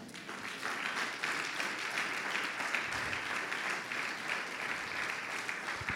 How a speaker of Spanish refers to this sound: Junte sus palmas.